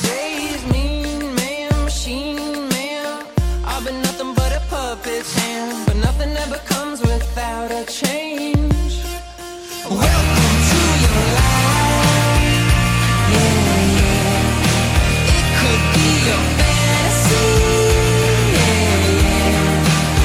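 A band's music bumper opens with punchy stop-start chord hits, then swells into a loud, dense full-band section that plays steadily to the end, with no voices.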